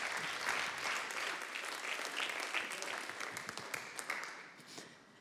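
Sustained applause from an audience at a Sunday church service, a dense wash of many hands clapping that holds steady for several seconds and gradually thins, with a few sharper individual claps toward the end.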